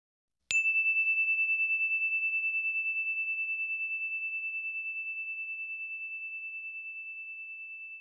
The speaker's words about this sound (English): Here comes the bell.